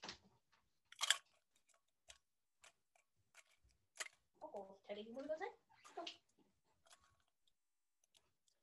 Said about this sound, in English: For those who are listening to me just violently like crush something, I'm trying to break ice.